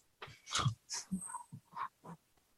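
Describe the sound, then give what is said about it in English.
A voice mimics a frog named Monty snoring after passing out, with a quick string of about six short, croaky, wheezy bursts, moderately loud, with brief gaps between them. “I, and- I only made the snoring noise.”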